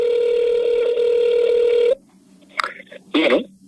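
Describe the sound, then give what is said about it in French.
A phone number being dialed to call the actor Denis Bernard: a steady, mid-pitched dial tone hums for about two seconds, then cuts out, followed by two short bursts of keypad tones. “J'ai appelé le comédien Denis Bernard, qu'on voit partout depuis 40 ans.”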